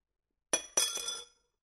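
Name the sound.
dishes clinking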